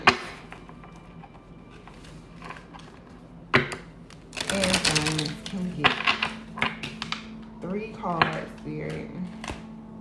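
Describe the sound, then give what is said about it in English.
A deck of cards is shuffled for a three-card reading for the air signs: sharp tapping, then a dense burst of rapid riffling flutter midway, followed by scattered softer card clicks while a voice murmurs faintly in the background. “if you believe you popped out while I was shuffling.”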